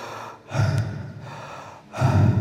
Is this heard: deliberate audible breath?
yes